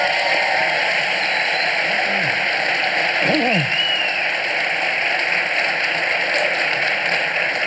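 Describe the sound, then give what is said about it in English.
An audience applauds guest Dave Rubin, host of the Rubin Report, steadily throughout, a dense, even wash of clapping that holds its loudness for several seconds, with a brief sweeping whoop or cheer rising out of it midway. “Let's have a round of applause for Dave.”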